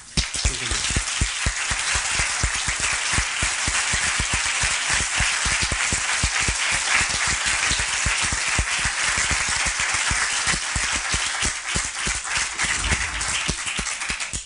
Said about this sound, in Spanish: Les pido por favor que recibamos con un caluroso aplauso a este distinguido literato.